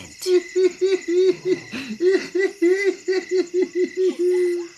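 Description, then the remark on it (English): A human voice imitates a hyena's giggling laugh: a rapid, steady string of about fifteen high, whooping hoo-hoo bursts, fairly loud, running for several seconds with no other talk. “asked Owl hyena was laughing as he hid in the grass.”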